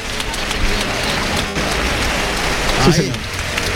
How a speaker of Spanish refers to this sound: Ah, no, la vuelta al ruedo no, lo van a arrastrar. Pero la ovación es de lujo para Esparraguero.